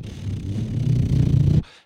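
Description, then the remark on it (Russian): A voice hums a low, steady engine drone, imitating a car driving along. The rumble rises slightly and holds for about a second and a half before cutting off abruptly. “А потом, когда она едет, она еще делает...”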